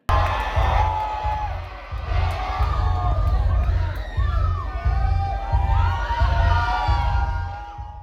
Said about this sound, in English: and even even though you couldn't see anything, this the crowd was just screaming, ready with anticipation.